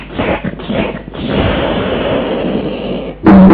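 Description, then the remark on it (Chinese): An old Taoist priest flicks a whip, lashing a bound man four times: a few sharp, snapping whip cracks burst out in quick succession, then give way to a loud, rough sustained crackle that cuts off abruptly into a short tonal sound. “老道把鞭子一抖，对着高杰就听，”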